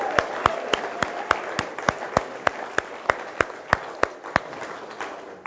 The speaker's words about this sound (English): Let's give a round of applause to the two who raised their hands, huh? Yeah. And let's give one more applause just to God Himself. How about that? Woo!